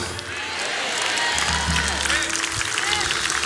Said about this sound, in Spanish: Le dan un aplauso a Jesús en esta mañana.